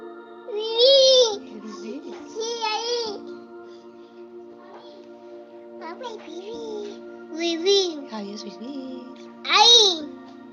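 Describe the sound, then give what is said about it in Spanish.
A baby girl babbles and coos in several high-pitched, sing-song bursts separated by short quiet pauses, with a faint steady hum in the background, in a home audio recording made a few days earlier. “queríamos que escuchaseis a la pequeña. Es un audio que Teresa grabó hace unos días”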